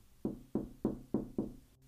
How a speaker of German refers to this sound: Es klopft wieder an der Scheibe.